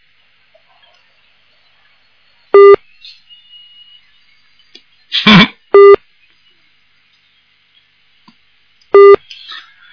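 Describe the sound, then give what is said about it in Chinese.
A telephone busy signal on a faulty line during a listener's call-in to a radio programme: three short, steady mid-pitched beeps spaced evenly about three seconds apart, with a harsh crackle of line noise between the first two and faint hiss throughout. “好，那没办法了，这个电话线有问题。”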